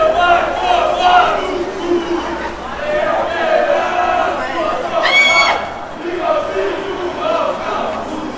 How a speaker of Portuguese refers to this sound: É aí que os caras vão gritar.